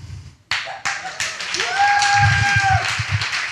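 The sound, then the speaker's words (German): An audience breaks into applause for a speaker's PowerPoint slides after a sharp start, with scattered claps building into a steady, dense patter that continues throughout, joined by a brief high whistle and some murmuring voices. “Wer jetzt beeindruckt ist von meinen PowerPoint-Skills, darf mal klatschen.”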